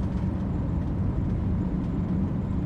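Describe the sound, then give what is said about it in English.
A steady, low engine and road rumble from a car driving through the Maine countryside along lakes and forests, following another car to a camp's opening ceremony, with constant tire noise and no voices, holding an even level throughout. “I drove behind Pious's car through beautiful Maine countryside, along lakes and forests, to attend the camp's opening ceremony.”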